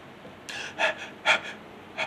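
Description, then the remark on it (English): A person takes a rapid series of sharp, gasping, panting breaths, about five or six short breathy bursts, fairly loud with no talking. “You start breathing, panting.”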